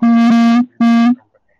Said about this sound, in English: So that sounds like uh, somebody has their phone next to the microphone, and when the phone vibrates, uh, it, it makes all of our ears go crazy.